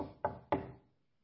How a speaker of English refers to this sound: And you all know about knocking on wood, right?